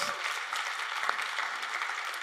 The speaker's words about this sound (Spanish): Ya, yeah, venga, ¿por qué le das un aplauso a Jesús?